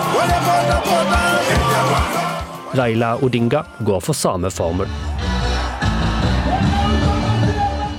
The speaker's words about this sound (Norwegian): Det er fem år siden sist, men nå er valgkampsirkuset i full gang igjen i Kenya. William Ruto taler til sine tilhengere, før han entrer et lasteplan på en pickup som kjører gjennom den jublende folkemengda til lyden av musikk.